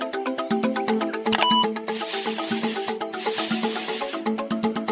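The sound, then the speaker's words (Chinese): Two long, bright snake hisses, each lasting about a second, sound in quick succession over bouncy, plinking background music, with a short sparkly chime just before them. “Oops，那是一条蛇。”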